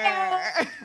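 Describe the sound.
A voice imitates a scythe swishing through the air: a short, strained, whiny vocal note that breaks into a breathy rasp, under a second long.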